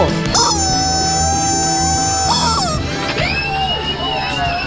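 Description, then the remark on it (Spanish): A person loudly shrieks an imitation of a chicken's cry into a microphone, one long sustained squawk followed by a second wavering, sliding call, shrill with some background noise underneath. “Grito de pollo.”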